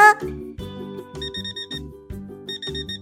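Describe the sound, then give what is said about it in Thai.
An alarm clock rings loudly at wake-up time in the morning, its bright electronic melody repeating in quick bursts of high chiming tones over a steady low pulse, with no voices. “เสียงนาฬิกาได้ดังขึ้น”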